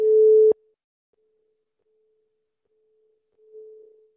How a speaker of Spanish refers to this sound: esos cuencos maravillosos. este me encanta. Este está hecho. Es el tercer ojo. No sé si se escucha un poquito, pero bueno.